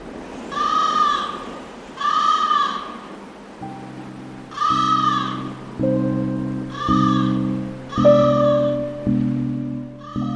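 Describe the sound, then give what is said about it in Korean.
Crows caw in the evening in a series of about six harsh, harmonic-rich calls spaced roughly a second or so apart, with a steady low droning tone joining underneath partway through. “까마귀들은 이날 저녁에도 별다른 소리는 없이 그저 까까거리다가 이따금씩 까르르 하고 그 지혜의 아래 알이 한없이 붙은 발음을 내곤 하였다.”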